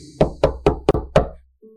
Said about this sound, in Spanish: Se llegó la fecha marcada en aquella hoja y a primera hora de la mañana escuché golpear insistentemente en la puerta de la cocina.